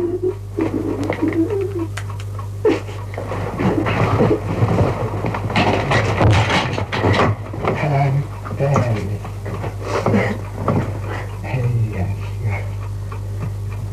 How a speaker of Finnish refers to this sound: siinä kuului koputusta ja itkua.